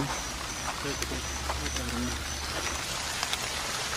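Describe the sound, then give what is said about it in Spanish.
Heavy rain pours steadily, a dense, constant hiss sprinkled with sharper drop impacts, with a low rumble underneath and faint, indistinct voices in the background. “Verga, está apretando la lluvia, güey.”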